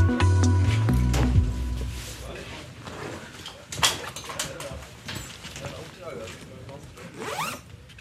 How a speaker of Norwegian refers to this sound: Nå er vi på Gardermoen militære flyplass, og lyden du hører her, er sekker som blir pakket og gjort klar til oppdrag.